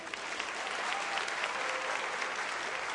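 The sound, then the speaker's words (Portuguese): A church audience applauds together for a group being presented to the church, a steady dense wash of many hands clapping at an even loudness for the whole stretch, with no single claps standing out. “Agora todos juntos vamos aplaudir esse grupo.”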